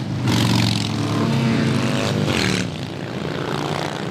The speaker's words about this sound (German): Den tieferen Sinn der machtvollen Motorradparade erfassen die meisten Schaulustigen nicht sofort, trotz der vielen Flaggen mit Aufschriften wie Prisoners of War, Kriegsgefangene oder Missing in Action im Kriegseinsatz vermisst.